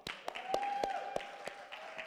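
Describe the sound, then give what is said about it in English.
Scattered applause for people who got saved: a handful of sharp, uneven claps over about two seconds, with a steady tone held underneath. “And if you got saved, come on, round of applause.”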